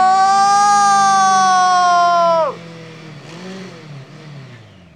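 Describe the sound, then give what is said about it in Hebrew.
A motorcycle engine whines loudly at a high, steady pitch as it moves toward the listener, then its tone drops sharply in a Doppler shift and the volume falls as it passes, leaving a lower, softer engine drone. “האפקט הזה קורה רק כשהמקור הקול זז אליכם, או אתם אליו. אם נניח הייתם עומדים בכביש וחוששים שהאופנוע נפגע בכם”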